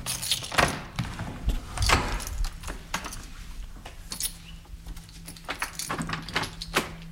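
Keys jangle in a series of bright metallic clinks, followed by the clunk and creak of an apartment door being unlocked and pushed open, with no talking.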